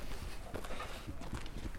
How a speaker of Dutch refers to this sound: We lopen hier in Elshout.